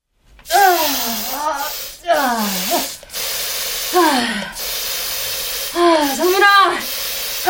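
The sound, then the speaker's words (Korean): Four sharp hissing bursts of an aerosol insecticide spray being sprayed to kill flies, each lasting about a second, fairly loud, with tonal vocal-like sounds mixed in alongside the spraying. “충제 다 뿌렸으면 잠깐 나가자.”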